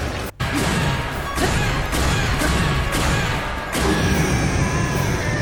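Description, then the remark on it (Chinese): A video game enemy blows up at the end of a battle in a run of loud, booming crashes, about half a dozen bursts in quick succession over a dense, continuous wash of game sound with no talking. “那咱们光听这个，可能还感受不出来真正战斗结束，战斗结束，因为战斗结束之后，他那个敌人是会爆炸的嘛。”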